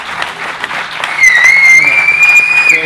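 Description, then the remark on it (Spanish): A woman who herds goats in her free time whistles one long, high, sustained note that dips slightly and then rises steadily, loud over a steady noisy, applause-like background that fills the first second on its own. “La que silba es mi mujer, que es cabrera en sus momentos, en, sus en su eh, momento libre, hace de cabrera.”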